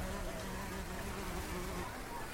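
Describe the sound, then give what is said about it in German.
A wasp, after an older woman's chocolate muffin by the water, buzzes steadily and continuously, a thin droning hum that holds at an even, fairly quiet level over a soft background wash, with no talking. “Die ältere Dame und er könnten sich verbünden im Kampf gegen die Wespe und um den süßen Muffin.”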